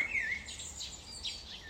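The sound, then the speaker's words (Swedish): Small birds chirp and tweet outdoors in nature by a tree in short, high-pitched calls, fairly faint, over a steady low hum of cars in the background. “Kanske är det tankarna som tar dig ifrån kvittret.”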